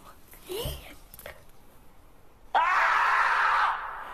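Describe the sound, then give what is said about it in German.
A marmot lets out a single loud, shrill scream lasting about a second, harsh and sustained, preceded by a few quieter squeaky vocal noises. “Ein Murmeltier, das schreit.”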